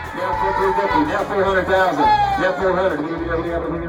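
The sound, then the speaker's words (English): A loud, boisterous auction crowd of overlapping voices hollering, screaming and calling out continuously as people raise their hands and bid, with no pauses and the din holding steady throughout. “People are hollering and raising, screaming and raising their hands and bidding. It's quite loud, it's quite boisterous.”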